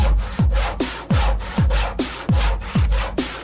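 A handsaw cuts through wood in steady back-and-forth strokes, about eight rasping passes in quick, even rhythm, fairly loud with no voices.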